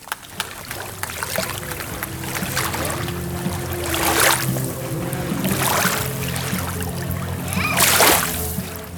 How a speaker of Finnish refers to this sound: liplattavia laineita ja leikkiviä lapsia Strömsön rannassa Vaasassa